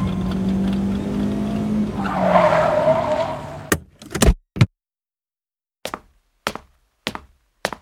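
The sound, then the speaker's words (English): A car engine rumbles as a man drives back around, rising into a brief tire squeal as it pulls up and stops, followed by a couple of sharp thuds like a door and then evenly spaced footsteps as he plods up the porch. “He drives back around.”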